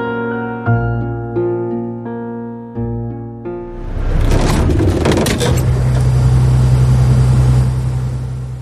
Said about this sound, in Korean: 버스가 멈춘다. 엔진도 조용히 입을 다문다.